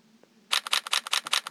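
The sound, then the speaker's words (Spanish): A rapid burst of phone camera shutter clicks in burst mode, around ten crisp clicks in quick, fairly even succession, bright, starting abruptly after a brief quiet moment with no talking, as the person walks through a room; the phone took about 40 photos. “Y como pueden ver, toma muchas fotos.”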